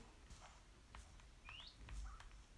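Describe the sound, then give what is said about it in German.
Faint parrot chirps in a video game, one quick rising whistle followed by a shorter lower call, set against soft clicking and patter in a quiet background. “Ein Papagei von mir ist gerade gestorben.”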